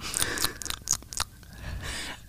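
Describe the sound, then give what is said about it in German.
Two people chew and lip-smack right at the microphone, a quick series of wet, crunchy bites and smacks with no talking. “Das, passt, das Schmatzen passt dir ganz gut ins Mikrofon, weil man hört das ja so im Ohr, als ob da jemand rumknuspert.”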